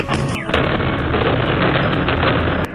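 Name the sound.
drone strike explosion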